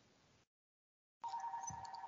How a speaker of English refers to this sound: my other phone here, and I can't answer it, but you can hear it ring for a little bit.